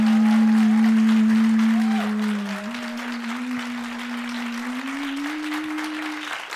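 An audience claps in a dense, continuous burst for several seconds in applause for a question about how long they would survive in the forest, loudest at the start, with a steady low tone slowly rising in pitch running underneath the clapping.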